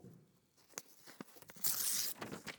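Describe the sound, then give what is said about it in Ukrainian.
Fairly quiet paper handling: a few scattered crinkles, then a long ripping tear of a book page, followed by rustling, crackly crumpling of the paper, as pages are torn from a book and crumpled to be thrown into a stove fire. “Потім почав вирвати з книжки сторінки, жмакати, і кидати їх у вогонь.”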